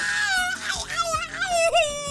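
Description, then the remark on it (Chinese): A child in a car wails loudly and without pause, the high-pitched cry wavering up and down in long, strained sobs with no words. “不提假牙还好，一提这牙，车里那孩子哭得更疯了。”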